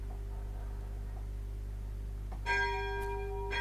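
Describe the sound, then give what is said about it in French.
A church bell strikes twice as it rings in five o'clock, its bright ringing tones lingering over a steady low hum, with no one speaking. “Entendez la cloche, c'est 5 heures qui arrivent.”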